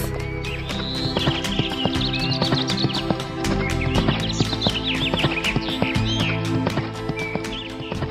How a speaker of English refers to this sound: And so Morris leapt on his horse Philip and rode off.